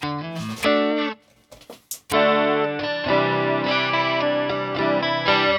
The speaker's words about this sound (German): Wir haben jetzt mal die zwei. Ich denke mal, das war ein, klang so ein bisschen wie ein Flanger. Ne? Ja.